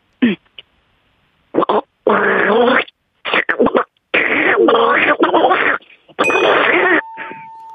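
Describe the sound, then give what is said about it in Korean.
A voice imitates an old, junky blender with a series of buzzy, sputtering bursts, several short and choppy and a few longer and rougher, loud with brief gaps between them. “고물 믹서기 소리요.”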